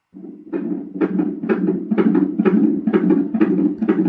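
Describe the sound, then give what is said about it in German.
The heartbeat of an unborn baby boy recorded by ultrasound Doppler at a prenatal appointment: rapid, steady whooshing pulses, about two per second, over a constant low rumble. Fairly loud, with no voices. “Was du hier jetzt hörst oder hören müsstest, und ich, äh, alle, alle Zuhörer hören es auf jeden Fall, sind die Herzschläge meines Sohnes.”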